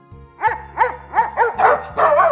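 A household dog's puppy barks at a woman with bared fangs, six times in quick succession, sharp, the last two barks rougher and more strained, over a low steady hum.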